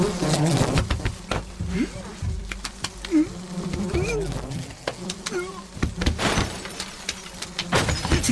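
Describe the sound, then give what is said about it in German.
A game sound effect of a wasp buzzing in a commentators' booth, its drone rising and falling as it darts around, broken by sharp clicks and thumps of swatting and scuffling, with muffled voices underneath. “teilen sich eine Kabine und werden von einer Wespe attackiert und das klingt so”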